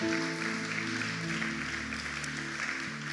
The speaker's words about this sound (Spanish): ¿Alguien puede glorificar el nombre de Dios? ¿Alguien puede darle un fuerte aplauso a Dios por eso